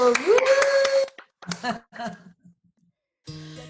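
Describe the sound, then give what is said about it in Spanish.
A short burst of clapping over a rising electronic tone, followed by a few voice-like murmurs and a pause before music begins playing. “Con un aplauso. un aplauso.”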